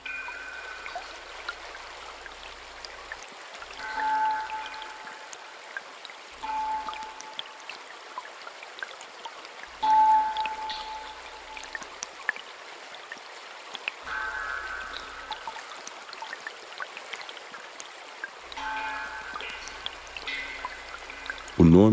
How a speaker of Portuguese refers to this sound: Suikinkutsu, ou harpa d'água. Nele, o som é produzido pela ressonância de gotas que caem dentro de um grande vaso fincado no solo.